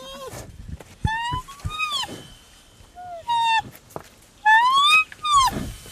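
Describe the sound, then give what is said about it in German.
Daniel, a baby rhinoceros cared for by Saving the Survivors, calls for milk with a series of high, whining squeals, some rising and falling in pitch, coming in short bursts separated by brief pauses. “Und so ein kleines Nashorn, das ist zwar auch schon ein massives Kraftpaket, aber eben auch nur ein Baby. Wenn es Milch will, ist das eindeutig.”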